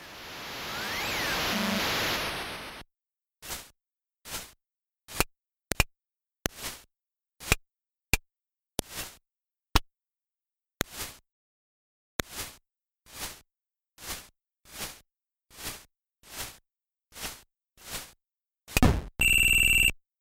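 Retro ice hockey video game sounds from match gameplay, imitating skating, the puck hitting the boards and the referee's whistle: a burst of harsh static hiss, then a steady series of short, clipped electronic blips and clicks in an even rhythm, ending with a bright buzzing tone.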